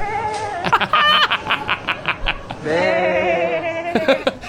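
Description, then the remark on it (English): Several people wearing sheep masks bleat like sheep while walking around a store, a choppy burst of short nasal calls followed by longer wavering bleats overlapping one another. “They're just walking around and bad. You can hear them all over the store. Bah!”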